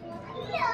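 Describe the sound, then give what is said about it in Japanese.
Reverberant hotel atrium ambience heard from the second-floor library of a hotel in the Karuizawa area, open to the first-floor front desk, café space and restaurant below, with snow outside: a steady wash of murmuring voices and children's chatter, moderately quiet, swelling slightly toward the end of the brief moment. “今日はねあのいろんな音が入っているかと思いますがあのホテルのね2階の、えーと、ライブラリーっていうねもう吹き抜けになってるんですよね1階のそのフロントとかあのこうカフェスペースとかレストランのあの1階から2階がこうね吹き抜けになっていて”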